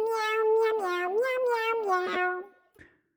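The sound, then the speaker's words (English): A street cat lets out a long, drawn-out meow, loud, wavering up and down in pitch for a couple of seconds before ending with a brief, faint chirp. “Even in the midst of something strange, he did little more than give a few extra meows.”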